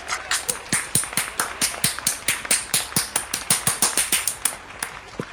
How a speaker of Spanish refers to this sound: Eso, aplausos, aplausos varios.